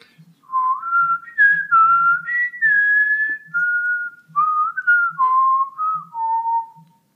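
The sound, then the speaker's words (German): A person whistles a meandering tune for about seven seconds, the clear tone gliding up and down between held notes and short phrases, fairly loud with no talking. “Das üben wir aber nochmal mit dem Pfeifen.”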